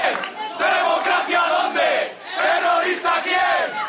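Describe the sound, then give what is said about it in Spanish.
About fifty far-left students at the Faculty of Political Sciences of the Complutense University, Madrid, chant slogans in unison, including "fascists out of the university", some in Basque, against UPyD president Rosa Díez; many voices shout in rhythmic bursts that swell, dip briefly, then surge again. “Al grito de fascistas fuera de la universidad, algunos en euskera, los violentos han recibido a la presidenta de Unión Progreso y Democracia.”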